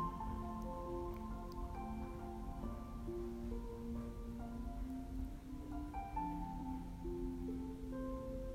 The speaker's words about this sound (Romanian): Observă ce ce îți inspiră apă curgătoare. Poate îți inspiră puritate